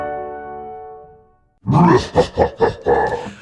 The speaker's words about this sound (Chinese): 哦，原来是年兽叫的声音。